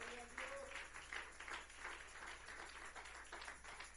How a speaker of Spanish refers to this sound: Démosle un fuerte aplauso a Él. Aleluya.